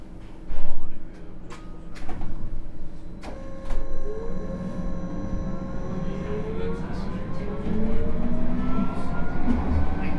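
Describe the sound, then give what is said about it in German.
A tram rumbles along and slows, its wheels giving off rising, drawn-out metallic squeals as it rounds a curve, with sharp clacks from the rails and faint voices in the background. “Straßenbahndrossel das Tempo. Kurve, quietschen.”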